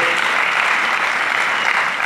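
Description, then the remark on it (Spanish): An audience claps steadily and loudly for the Lord one afternoon, a dense wash of many hands applauding together that holds even for about two seconds without pause. “Denle fuerte ese aplauso al Señor en esta tarde.”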